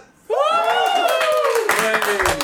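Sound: small live audience applauding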